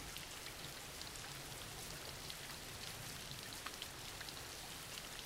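Steady rain falls continuously, a dense hiss of drops with faint scattered patters on surfaces, even and unbroken throughout with no voices.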